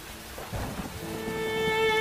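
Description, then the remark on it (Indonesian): Steady February rain hisses throughout, with a low rumble of thunder swelling briefly near the start. Soft sustained tones creep in underneath toward the end; no one speaks. “Aku lagi menikmati hujan di bulan Februari loh.”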